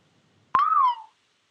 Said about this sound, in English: was that you whistling?